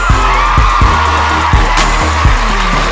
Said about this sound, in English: They give you a really loud uh, round of applause just now.